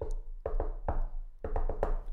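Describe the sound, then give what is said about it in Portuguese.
Firm knocking on a basement door to have it opened, in two quick bursts, three knocks and then four, with a brief pause between them and no voices. “Uh, na cave, naquela cave sim, que nós sim, fazemos sim, que, tem, que é preciso bater, fazer”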